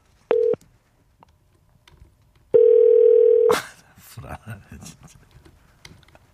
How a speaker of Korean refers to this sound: 예, 자. 전화 갑니다. 세 번째입니다.